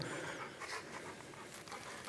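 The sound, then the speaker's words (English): A dog pants steadily, quick breathy huffs repeating in an even rhythm for a couple of seconds, soft, with no voices over it. “Who likes this dog?”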